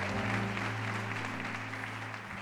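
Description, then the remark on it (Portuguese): A church audience applauding the Lord: dense, steady clapping from many hands at an even loudness, with sustained low musical tones held underneath throughout. “Dê um glória a Deus e aplauda o Senhor.”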